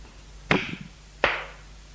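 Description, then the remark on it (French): Two sharp, loud slaps as a man strikes a woman across the face, the first at the start and the second a moment later, each a crisp smack with a short fading tail and no voices. “Il la gifle.”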